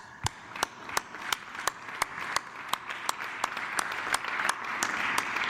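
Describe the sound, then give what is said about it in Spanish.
Sparse applause from the same three people: distinct, sharp claps at a steady, unhurried rhythm over a low background hiss, moderately loud and with no voices over it. “El aplauso ahí de los tres de siempre, de los tres mismos de siempre.”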